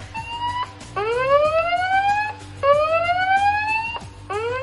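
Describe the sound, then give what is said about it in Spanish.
A loud spoiler alarm siren sound effect rising in repeated whooping sweeps, about three cycles in quick succession over a low droning hum, with no talking. “No soy tan bueno como mis compañeros de micro, pero eh, hay algo que sí se hace muy bien y es eh, poner la alarma de spoilers.”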